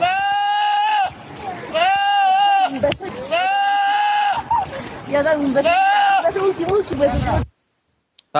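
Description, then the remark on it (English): A goat screams in several long, wavering, human-like bleats, loud, with brief pauses between cries before the sound cuts off abruptly. “It is the screaming goat.”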